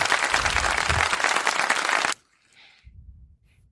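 A recorded applause sound effect played in to congratulate footballer Matthias Ginter: a burst of dense crowd applause, loud and full, lasting about two seconds before cutting off abruptly, followed by faint low rumbling and quiet background noise.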